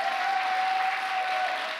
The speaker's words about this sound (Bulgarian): О, хайде, ръкопляскай, като че наистина вярваш.